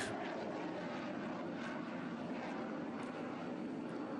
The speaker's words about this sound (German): In, äh, in diesem Moment ist es vor allem beeindruckend zu sehen, wie die Jets starten und landen, die Geräuschkulisse, die dabei entsteht, hört man gerade.